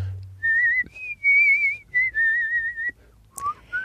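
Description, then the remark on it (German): A person whistles through the lips a clear, wavering tune in several sustained phrases, fairly loud, with short breaths between notes and a quiet low hum underneath. “Ja, vor allem, du machst gar nicht so eine, du pfeifst nochmal ganz anders. Das ist ja fortgeschrittenes Pfeifen.”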